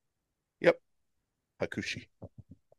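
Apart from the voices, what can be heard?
sneeze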